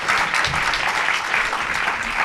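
An audience in a hall applauds steadily, a dense, even patter of many hands clapping at once, loud throughout with no voices standing out.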